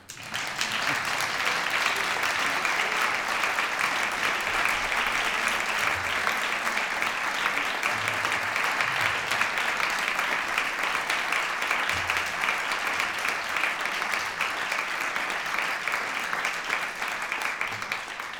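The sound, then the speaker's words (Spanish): An audience claps steadily for about eighteen seconds, a dense, even wash of many hands that holds a constant loudness from start to finish with no speech over it. “Un aplauso para ellos.”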